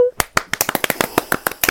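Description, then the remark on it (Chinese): A short burst of applause: a quick run of sharp, uneven hand claps, fairly loud, lasting under two seconds after a brief tone at the start. “就是我宣布，我们正式取消挑战这个环节， 掌声。”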